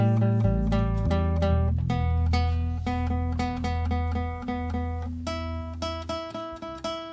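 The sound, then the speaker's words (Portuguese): Several instruments tune at once, plucked notes repeating over a steady low droning tone and overlapping in a loud, jumbled wash with no clear melody. “Todo mundo afinando ao mesmo tempo.”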